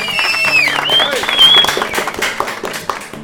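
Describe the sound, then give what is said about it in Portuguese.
A burst of applause for the Igreja Lusitana, a supporting church, with many hands clapping in a dense, steady patter, mixed with bright whistling tones that rise and fall, fading off toward the end. “E sempre aqui eu peço uma salva de palmas para a nossa Igreja Lusitana.”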